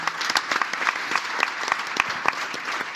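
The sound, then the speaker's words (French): A steady burst of audience applause, dense overlapping claps with a few sharper individual slaps standing out, holding at an even, fairly loud level for the whole stretch. “On peut applaudir ce gourou qui est qui l'anti-gourou”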